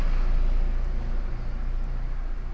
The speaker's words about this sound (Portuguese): Deixa eu passar aqui o carro aqui. Passou bem pertinho já.